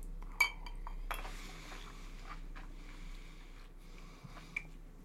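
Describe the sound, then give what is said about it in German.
A large ice cube clinks against a glass of Tennessee whiskey on the rocks a few times, sharp bright taps with a quiet low background hum and no talking. “Sieht zwar echt cool aus, also, yo, ich habe so einen großen Ice Cube hier drin, so einen riesigen Eiswürfel”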